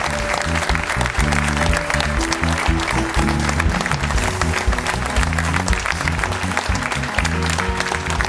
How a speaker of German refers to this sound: Applaus